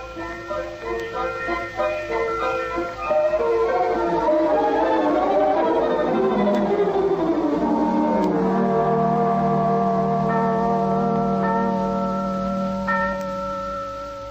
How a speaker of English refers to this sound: what are those bells?